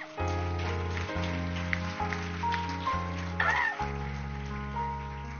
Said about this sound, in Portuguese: Você pode aplaudir a palavra?